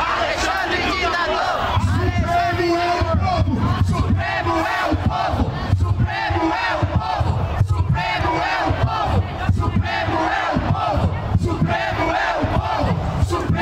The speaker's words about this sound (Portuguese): Ontem, manifestantes protestaram contra os magistrados quando eles saíam do hotel para pegar uma van. O Temer também estava lá e acabou que recebeu uns xingos também. Vamos ouvir um pouco da confusão.